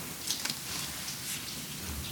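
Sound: rain falling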